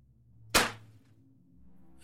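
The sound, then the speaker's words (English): A single sharp firecracker, thrown at the foot of a horse, bangs suddenly and loud, then rings off quickly over a low steady background rumble, with a faint hiss creeping in near the end. “The cracker burst with a loud sound, spooking the animal and causing it to rear up.”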